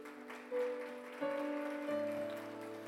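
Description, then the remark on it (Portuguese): An audience applauds the Lord for a man's life in a steady, dense patter that carries through the whole clip, while sustained keyboard chords shift beneath it about every half second to second. “Pode aplaudir o Senhor pela vida dele?”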